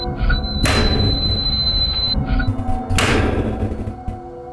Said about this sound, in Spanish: Repentinamente el zumbido se hizo más fuerte y le siguió un gran golpe en la puerta del horno.